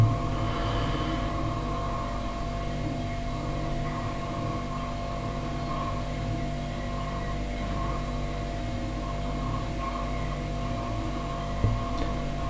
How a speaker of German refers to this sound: Im Hintergrund hört ihr den Kühlschrank natürlich. Aber ja, das ist halt Küchenatmosphäre.